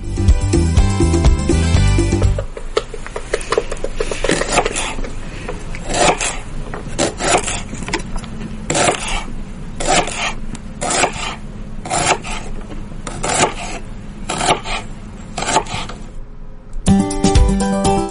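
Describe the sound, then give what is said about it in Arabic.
Lettuce being chopped with a knife: a steady series of crisp, crunchy strokes in a fairly regular rhythm, with brief music at the start and end and no talking. “آه، تقطيع وبالاخص اظن تقطيع الخس”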